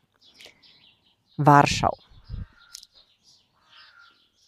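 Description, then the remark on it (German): Scattered bird calls and chirps carry across a sunny outdoor terrace, fairly faint, with a brief harsh crow-like caw; a short burst of speech briefly breaks in. “Also ich liege hier draußen gerade bei uns auf der Terrasse und genieße die Sonne ja, dieses unglaubliche Gefühl, hier draußen zu sein und ähm, den Vögeln zuzuhören”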